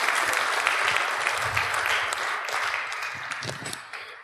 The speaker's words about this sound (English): Please give him a round of applause, folks, as he comes center stage here.